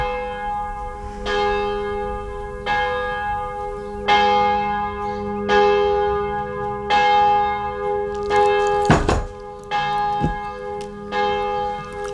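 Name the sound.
church bells ringing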